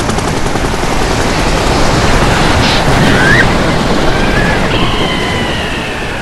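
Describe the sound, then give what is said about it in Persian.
A helicopter sinking into the sea in the middle of the Strait of Hormuz: a loud, steady roar of churning water and rotor noise fills the whole clip, with faint high whining tones sliding through the second half. No one speaks. “هلیکوپتر وسط تنگه هرمز غرق شد”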